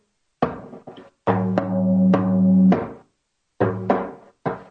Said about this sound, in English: closed sound, like a water drop falling on the drum.